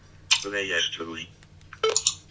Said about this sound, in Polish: Ciach. Koniec rejestracji. O, to piknięcie to znaczy, że koniec rejestracji.